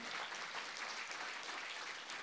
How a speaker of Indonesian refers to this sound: Saya appreciate sekali sama tim kita gereja ini yang punya excellent spirit, namun hasilnya adalah excellent service. Saudara boleh tepuk tangan untuk pengerja kita semuanya.